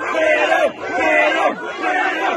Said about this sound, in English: There's a significant police presence there. Uh, a number of these protesters chanting freedom. Freedom! Freedom! Freedom!